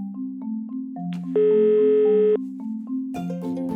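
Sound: telephone ringing tone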